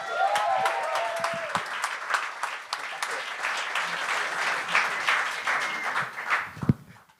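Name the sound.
audience applause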